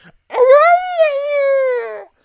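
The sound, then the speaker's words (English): An engineer with a very long beard imitates a caribou call when his beard is pulled: one sustained, nasal, tonal moan lasting nearly two seconds, rising slightly then gently falling, loud, with no other sounds. “And when you pull on his beard, he apparently makes a noise like a caribou.”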